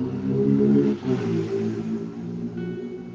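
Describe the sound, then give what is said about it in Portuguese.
A motorcycle engine drones close by, its steady buzzing note dipping and shifting in pitch as it passes along the street, fairly loud, with no talking over it. “desculpa, porque eu tô aqui próximo à rua e não tem como evitar o barulho de moto, né?”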